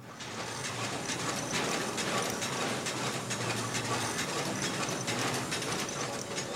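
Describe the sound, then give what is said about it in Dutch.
Steady mechanical clatter and ratcheting of the old metal wheels of a very old mine cart, a small train-wagon-like cart, and its chain grinding along as it is hauled, with dense rattling and occasional metal squeaks, loud throughout with no talking. “het ophalen, de ketting, het, het, of het wielen draaien bedoel ik eigenlijk. Ja, en op een gegeven moment krijgen we metal squeaks”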